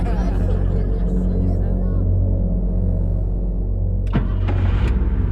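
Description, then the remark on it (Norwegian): A steady low engine rumble of a car fills the scene, with passing traffic noise and a few sharp mechanical clicks and whooshes near the end. “Og nå skal vi ut på bilveien.”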